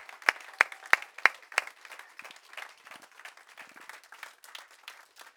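An audience applauds powerfully in the morning to welcome viewers watching in Austria, Germany and Switzerland, opening with a few sharp, evenly spaced claps before settling into a dense, steady patter of many hands clapping together.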